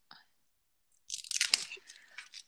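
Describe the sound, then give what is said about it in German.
Someone chewing a crunchy chocolate bar, a Kinder Riegel (the third one eaten): a dense run of crackly, irregular crunches lasting over a second, fairly loud and bright, after a short faint sound and a pause. “Na, ah, das ist der dritte Kinderregel, ja.”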